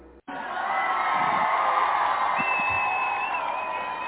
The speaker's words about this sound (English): And then a round of applause.